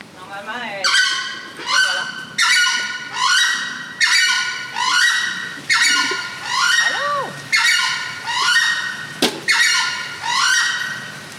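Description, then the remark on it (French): A southern screamer, a large turkey-like tropical bird, calls in a long, steady series of loud, harsh honks, roughly one per second, each a brassy, nasal blast, with a brief sharp click partway through. “c'est le kamishi à collier, qui est une espèce de grosse dinde, qu'on pourrait dire, tropicale également, euh, qui est assez bruyante au niveau de la vocalise.”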